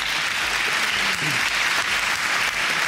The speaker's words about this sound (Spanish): Un aplauso, claro que sí